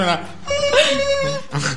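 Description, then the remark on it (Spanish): A voice mimics an office telephone ringing, a high, warbling, sustained tone held for over a second between shorter voiced bursts, fairly loud. “Esto es como, como suenan los, los teléfonos estos de las oficinas, ¿no?”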